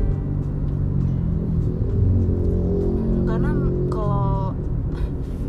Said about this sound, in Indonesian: suara suara motor ya bodo amat deh